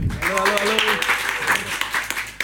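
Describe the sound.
Audience applause, a dense steady patter of many hands clapping throughout, with a voice briefly calling out over it near the start.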